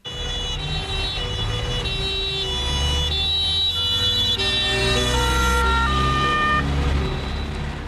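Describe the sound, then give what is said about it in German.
An ambulance siren wails continuously with a steady two-tone pattern, loud, over a low rumble of engine and traffic noise, as the ambulance carries an injured police officer back to a runway area. No one speaks. “Der Rettungswagen bringt den zuerst verletzten Beamten in das Startbahnareal zurück.”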